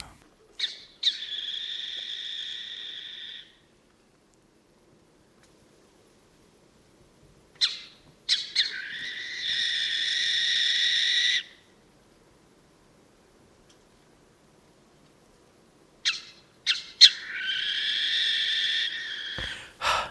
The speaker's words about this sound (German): Dieses Mal ist es auch eine etwas bekanntere Eule. Hör mal rein, sie rastet ein bisschen aus.